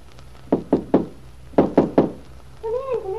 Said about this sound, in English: Well, this morning, the happy young woman is out in the kitchen when she hears a special knock at the freshly painted front door.